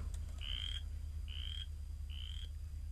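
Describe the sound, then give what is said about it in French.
A chorus frog, played from an online video, gives three short, rising, raspy trills, evenly spaced and fairly clear, over a steady low background hum with no one talking. “Je viens de tomber sur une vidéo YouTube là, de, de ce que ça fait comme bruit une rainette faux grillon”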